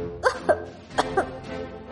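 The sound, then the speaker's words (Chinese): A painter coughs loudly in two pairs of sharp, voiced bursts, four coughs in all, with a short pause between the pairs over a faint background hum. “画家大声咳嗽着。”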